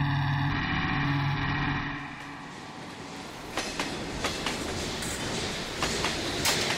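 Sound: train running on rails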